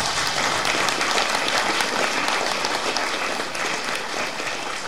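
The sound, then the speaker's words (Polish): An audience applauds the editor-in-chief steadily for about five seconds, a dense, even wash of many hands clapping at a fairly loud level with no voices standing out. “Oklaski dla naczelnego.”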